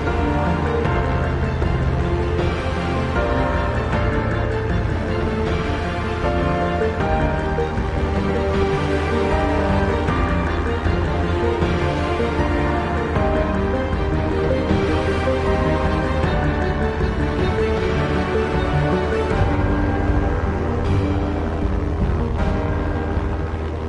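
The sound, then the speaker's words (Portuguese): A P-47 Thunderbolt propeller fighter plane of the Brazilian Air Force takes off on a sunny but cold morning in snow-covered northern Italy, 4 February 1945. Its engine roars steadily for the whole stretch, a dense, loud droning with layered low harmonics and rough, throbbing texture. No one speaks. “Danilo Marques Moura, um aspirante da Força Aérea Brasileira, convocado para a guerra, decola com seu avião, um Thunderbolt P-47.”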